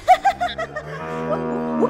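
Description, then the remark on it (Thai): An old cow lets out an angry moo, opening with a few short choppy bursts before stretching into a long, loud, low bellow that lifts slightly at the end. It is alone. “ได้ยินแบบนั้นเจ้าวัวแก่ก็ได้ยิ่งโมโหเข้าไปใหญ่”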